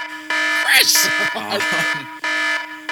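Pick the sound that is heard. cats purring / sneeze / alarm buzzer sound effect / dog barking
alarm buzzer sound effect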